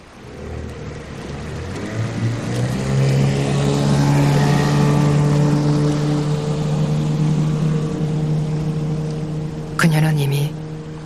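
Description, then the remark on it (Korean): A small outboard motor on a boat is started by a woman after she reels in her fishing line. It settles into a steady, fairly loud droning hum, with a brief rattling burst near the end. “그녀는 몸을 일으키더니 배에 서서 낚싯줄을 감아 올리고 다시 자리에 앉고는 선회 모터에 시동을 건다.”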